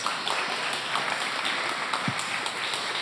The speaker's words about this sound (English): Give them a warm applause, please.